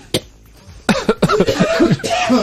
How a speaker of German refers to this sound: Ich habe gerade einen Hustenreiz